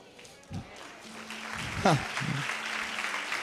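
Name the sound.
audience applause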